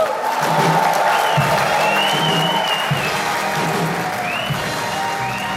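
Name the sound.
audience applause and cheering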